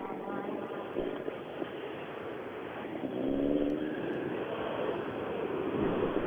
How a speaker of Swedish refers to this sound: Och sen kommer de att köra fram och parkera bilen på lämpligt ställe. Ska vi se var han parkerar.